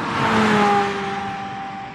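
A car engine revs up loudly, its whine rising and then holding steady as it slowly eases off over a couple of seconds.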